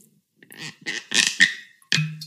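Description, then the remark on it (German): A synthetic plastic cork squeaks and creaks in a series of short bursts as it is twisted and pulled from a wine bottle, ending with a low, hollow release. “Wenn man mal so einen schönen Sound hat mit dem, dem Korken.”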